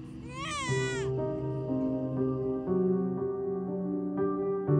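A baby wails loudly up close, starting with a sharp, high-pitched cry that bends in pitch, then carrying on in a steady, strained sobbing for several seconds without pause.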